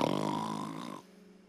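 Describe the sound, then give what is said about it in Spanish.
A voice imitates a snore, portraying the biblical Jonah asleep: one loud, rattling, harmonic-rich snort lasting about a second, alone, then cutting off into quiet. “Así que ahí está Jonás roncando.”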